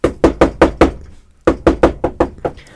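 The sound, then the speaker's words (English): Firm, loud knocking on a door: a quick run of five raps, a brief pause, then another six knocks that fade slightly toward the end. No voices. “Anyways, so the bottom line is, let me go knock on the door.”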